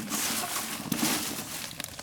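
Dry, rustling crinkles and crunches as loose wood shavings are pushed and packed into a wooden box, a steady scratchy texture with a few sharper crackles, no voices.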